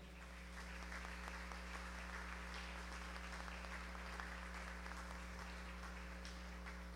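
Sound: applause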